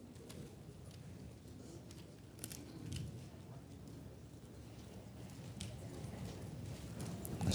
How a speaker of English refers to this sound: still hear some pages turning.